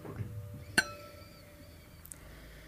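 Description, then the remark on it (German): A single bright clink of wine glasses touching in a toast, ringing on with a clear sustained tone that slowly fades, preceded by faint low murmuring and a small tap near the end. “Ich würde sagen, probieren geht über studieren, oder? Unbedingt. Prost.”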